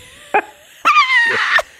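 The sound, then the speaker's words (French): Dogs bark inside a house, loud: one short sharp bark, then a longer, drawn-out tonal bark that almost becomes a howl. No one speaks. “on peut voir que nos chiens sont bien élevés.”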